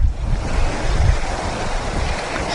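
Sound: river water flowing outdoors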